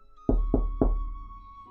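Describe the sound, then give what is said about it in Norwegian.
Three solid, resonant knocks in an even rhythm on the hollow hull of a boat, made by a man knocking on the boat, each booming low and ringing briefly before fading, with no voices. “Så går han litt lenger ned på den båten og banker litt på den.”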